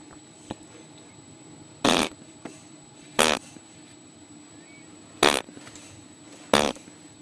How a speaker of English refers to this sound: Mummy doing raspberries at you?